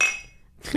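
Glasses clink together in a toast, a single bright ring that shimmers and fades within a moment, followed by a short duller clatter.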